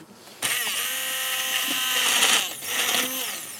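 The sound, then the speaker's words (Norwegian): A motorized appliance whirs on abruptly, its high buzzing whine dense with harmonics, dipping and rising in pitch as the load shifts: an immersion (stick) blender running steadily for a few seconds. “Jeg tar et skritt tilbake, for jeg er litt redd for å at uh, du skal ha en slags blenderulykke hvor alt spruter uh, overalt, sånn som man ser på film.”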